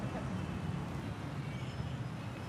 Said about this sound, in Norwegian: Du tenker kanskje nå at det ble helt stille, og det ble det nesten, for dette var lyden av en elmotorsykkel.